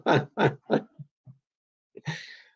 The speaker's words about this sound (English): Yeah, cough, sputter.